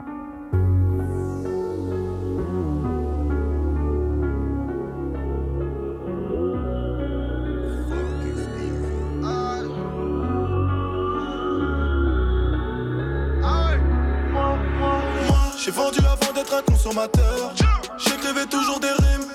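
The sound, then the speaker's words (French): A loud rap track played by a DJ as the first track of the show, with heavy, booming bass and a steady beat, dense melodic layers over the top, then sharp punchy drum hits and rising effects near the end. No one talks over it. “ok, alors le premier son de l'émission, c'est …, …. DJ, envoie-moi cette merde.”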